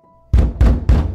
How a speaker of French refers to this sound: C'est le bruit de quelqu'un qui cogne lourdement à la porte.